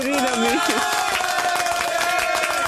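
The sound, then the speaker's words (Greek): A crowd applauds a father steadily for a few seconds, many hands clapping in a dense, continuous patter, with a sustained voice or cheer rising above the clapping. “Παρακαλώ, χειροκροτήστε τον πατέρα.”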